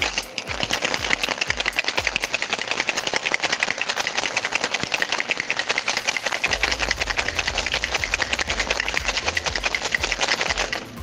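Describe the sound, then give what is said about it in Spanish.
Ice cubes rattle hard and fast inside a cocktail shaker as a bartender shakes a drink, a dense, steady clatter of sharp clicks that carries on vigorously for about eleven seconds, loud, with no talking. “Hay que escuchar los hielos ahí.”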